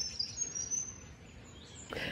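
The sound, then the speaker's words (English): A dense chorus of many frogs calls steadily at a small dam filled by recent rain, their high, shrill trilling blending into one continuous wash, with a brief rustling burst near the end and no voices. “Now this is a cute little dam that's filled up in the bit of rain that we've had and there's a whole heap of frogs that I can hear calling here and the coolest thing about frogs is that every species has a different call”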